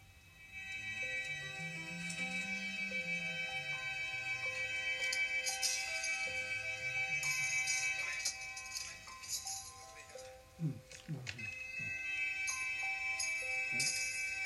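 A band tunes up on stage, with overlapping sustained notes, pitch slides and scattered plucks forming a steady, dense wash of unrelated tones, fairly loud and continuous throughout.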